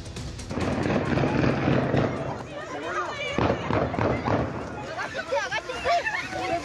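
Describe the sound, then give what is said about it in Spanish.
A quick burst of several sharp gunshots cracks out midway, loud, amid a noisy commotion of agitated voices and shouting that continues throughout; shots fired in front of a school in Tonalá, Jalisco, Mexico, killing a public prosecutor's agent. “El homicidio ocurrió enfrente de una escuela Mientras la víctima estaba con su familia, los alumnos del colegio se resguardaron dentro del plantel al escuchar los disparos.”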